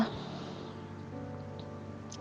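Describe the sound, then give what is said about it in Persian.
Steady rain that came on suddenly pours down in a continuous, even hiss at moderate loudness, with a faint low hum running underneath and no voices. “مثل همین بارونی که یهویی اومد اینجا همه چی شست”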